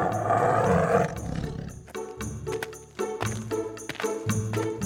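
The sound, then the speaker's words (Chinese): A giant cat lets out a loud, deep roar, followed by several shorter rumbling growls in a steady rhythm, with no voices over it. “奇怪了，这只特别巨大的猫，声音是烧虾吗？呃呃呃，怎么不是喵喵喵喵喵？这个声音也太怪了吧！”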